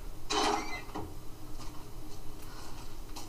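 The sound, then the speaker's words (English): In a video game, a door leading back to the park unlocks with a single loud mechanical clunk and rattle, followed by a few faint clicks over a quiet low background hum. No one speaks. “Oh, hey, I can unlock the door back to the park.”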